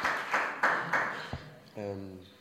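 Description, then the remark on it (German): A brief burst of applause requested in thanks for the organizers' effort: four loud, evenly spaced clapping swells in the first second. It fades as a voice begins humming or speaking a sustained tone. “Und äh, wollte einen Applaus dafür einfordern, ähm, der jetzt schon erfolgt ist. oder, noch, oder dann nochmal ein deutscher Applaus, ja.”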